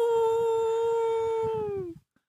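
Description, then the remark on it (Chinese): A voice in a children's story imitates a werewolf monster's long, sustained howl, a steady high wavering tone that slowly drops in pitch before cutting off abruptly, with a rough breathy growl underneath. “然后只见狼人怪仰面朝天，呜”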